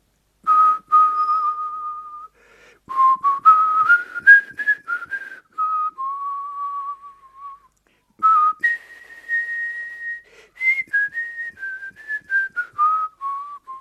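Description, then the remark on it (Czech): A person whistles the melody of a song alone, a slow, lilting, clear tune in two flowing phrases separated by a brief pause, with notes gliding smoothly up and down. “Tak jsem zapískal ….”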